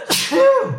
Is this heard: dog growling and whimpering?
no